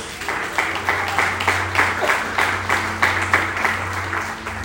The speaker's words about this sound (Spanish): ¿Cuántos dicen amén a esto? Y le aplauden a la palabra de Dios.